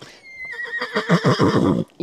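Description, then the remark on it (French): A mare whinnies loudly, a high trembling call that starts thin and steady, then breaks into rapid, shaky pulses before cutting off after about two seconds. “avait le goût de vous parler aussi. Izzy est une jument”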